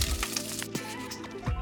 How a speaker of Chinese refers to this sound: 的鱿鱼已经差不多，已经煎炸好了。我们先把它给捞起来。